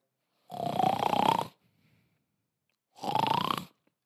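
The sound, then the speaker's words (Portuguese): A person imitates snoring with their voice: two loud, rasping snores about a second each, separated by a faint breath, with no talking. “Isso é um ronco.”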